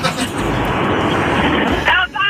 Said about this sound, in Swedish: jag sitter i bilen. Jag förstår. Ja, ah, vad bra att du sitter i bilen.